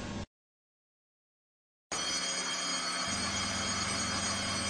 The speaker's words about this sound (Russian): При приготовлении маршрута пропуска поезду 6702 дежурный по станции Куприна слышит звонок в зарез стрелки.